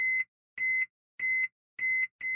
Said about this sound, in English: Oh, sounds like the microwave. I must have turned on the timer by mistake. Uh, well, we've had it for about 10 years now, and I've never seen these weird symbols on the screen.